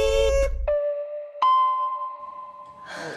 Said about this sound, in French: Laissez un message après le bip.